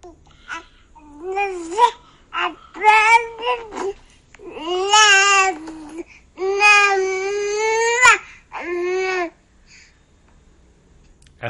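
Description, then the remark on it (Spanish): A newborn baby cries in a series of high, wavering wails, several short bursts followed by longer drawn-out cries, fairly loud, with no one else speaking. “ese entonces supiste y sentiste que eras un ser humano vulnerable y que esa pequeña bolita de carne que tenías en tus brazos, quieres darle lo mejor de la vida.”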